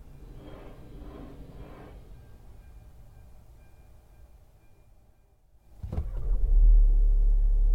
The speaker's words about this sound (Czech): Vlak se blíží k přejezdu před námi. Dokonce nám to ukazuje i vzdálenost toho vlaku od přejezdu. Můžeme si tedy rozkliknout eh, přesnou polohu. Tak. Tak a už kolem nás projíždí ten nahlášený vlak.